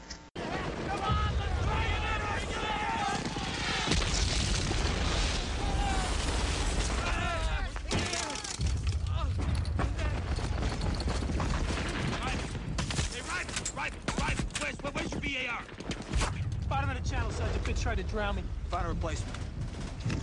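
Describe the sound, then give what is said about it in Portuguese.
Loud, relentless battle din from a war film's Normandy landing scene: rapid bursts of gunfire and heavy booming blasts crowd together for twenty seconds, with shouting voices and the rumble of engines or surf mixed underneath. “Ah, a cena do desembarque na Normandia é fantástica, né,”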